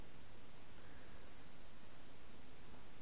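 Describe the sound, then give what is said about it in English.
A steady, soft hiss of rain falling outside, an even wash of noise with no distinct drops, fairly faint and continuous throughout, with no voices. “And I don't know if you can hear it's raining out, so that's very distracting to me.”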